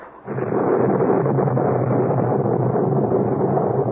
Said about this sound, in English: Well, there it is now. And the storm looks to be coming back.